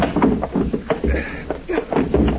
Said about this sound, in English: help me push the desk against the door.